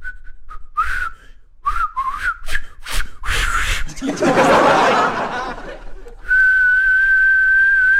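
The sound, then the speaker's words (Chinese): A person imitates a wolf whistle: a run of short, gliding whistle tones, then a burst of breathy laughter, and finally a long, steady, high whistle held to the end. “就开始吹口哨，吹流氓口哨啊，就就这样吹啊，叫。”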